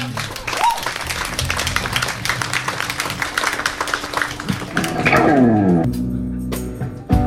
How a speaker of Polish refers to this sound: Specjalnie tak to zaplanowaliśmy, bo chcieliśmy się spotkać z Wami, czyli z tymi, którzy są z nami w zasadzie od początku. Wielkie brawa dla Was.